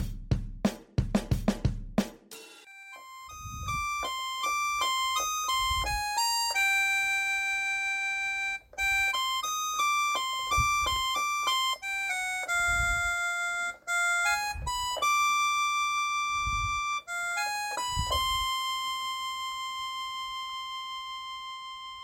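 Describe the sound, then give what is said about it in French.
A long, unending electronic ringing: a repeating melodic pattern of bright, beeping tones that keeps going without pause, with a few soft low thumps early on and occasional low pulses underneath. “une sonnerie interminable”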